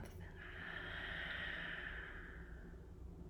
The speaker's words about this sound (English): Breathing in through the nose and breathing out through the mouth.